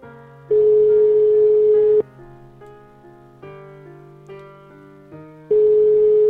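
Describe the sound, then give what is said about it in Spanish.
A phone line rings out as a radio show calls a listener: two loud, steady electronic ring tones about five seconds apart, with quieter tonal music in the background between them and no one speaking. “A ver si tenemos suerte y nos lo cogen.”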